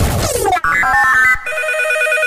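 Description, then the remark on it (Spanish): An Energy System Clock Speaker 4 digital alarm clock rings loudly: a quick descending electronic sweep, then a run of stepped beeping tones that settles into a steady, bright buzzing alarm, with no voices. “Despertador digital chulísimo de Energy System.”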